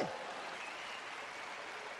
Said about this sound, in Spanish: Aplaudan eso, eso es importante.